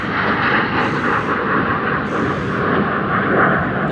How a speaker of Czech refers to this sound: Takže má nějaký dvě stíhačky.